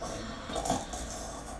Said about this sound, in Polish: Ojciec tam już śpi, chrapie.